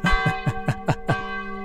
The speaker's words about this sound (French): C'est l'heure apparemment, les cloches sonnent.